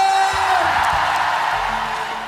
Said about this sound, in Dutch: Bijzonder legioen, mag een ongelooflijk applaus voor onze kampioenen!